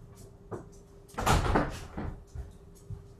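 A door opens with a brief rattle and creak to let in Jen, a yellow Labrador who had been scratching at the door, preceded and followed by a few soft clicks and thumps in otherwise quiet surroundings.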